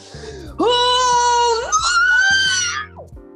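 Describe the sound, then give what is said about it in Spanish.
A voice imitates a long, drawn-out yell made while stretching on getting up in the morning: a loud strained cry that rises in pitch partway through, holds for about two seconds, then trails off into a brief fading murmur. “Bueno, yo me levanté hoy, primero que cuando me levanto pego unos gritos, tipo cuando me estiro, como...”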